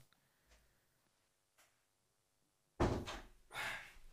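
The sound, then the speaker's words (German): A few faint clicks and a soft thud lead into two loud door sounds near the end, a heavy bang followed by a second broad rattling thump, as a door is opened for a pizza delivery, with no talking. “Tür aufmachen, Pizza ist da, bin gleich da.”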